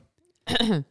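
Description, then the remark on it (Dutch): A single sharp sneeze bursts out after a brief near-silent pause, loud and breathy with a voiced, falling tail, lasting under half a second. “Sorry. Gezondheid.”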